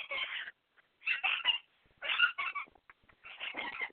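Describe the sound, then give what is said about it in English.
A kitten squeals while playing, in several short, high-pitched bursts separated by brief pauses, moderately loud, with no one talking. “Uh, I hope nobody minds the sound of the squealing.”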